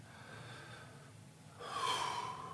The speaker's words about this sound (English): and you stop and you say, I'm going to breathe into my belly 10 times